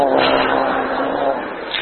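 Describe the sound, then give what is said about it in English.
A brand new car drives steadily down the road on a trip to Texas, its engine drone and road rumble holding at an even, fairly loud level throughout, with no voices over it. “We got our brand new car. Uh, and we're off to Texas to see your folks.”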